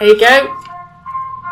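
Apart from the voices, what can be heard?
ice cream van chime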